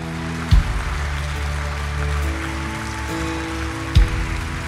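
An audience applauds for the Lord in a steady, dense patter of clapping that fills the whole stretch without letting up, broken only by two brief, dull low thumps. No one speaks.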